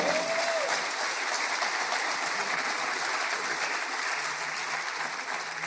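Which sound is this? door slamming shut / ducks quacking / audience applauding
audience applauding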